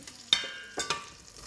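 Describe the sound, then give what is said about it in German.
Chopped vegetables being stirred into bulgur: two or three short scraping and clinking bursts from a spoon in a pot, fairly quiet, with no voices. “So, jetzt kommen die ganzen geschnibbelten. So. so. Das können wir jetzt alles schön in dieses Bulgur rein.”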